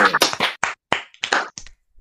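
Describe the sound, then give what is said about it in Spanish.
A few people clap in short, uneven bursts for about two seconds, applauding the farewell of Sergio Álvarez from Celta; the sharp claps are fairly loud and irregular, trailing off at the end with no talking. “Entón, agora, como xa prácticamente oficial a despida de Sergio Álvarez, aquí ahora mismo eu, libre un aplauso, si queres me acompañades, por tantos anos Sergio”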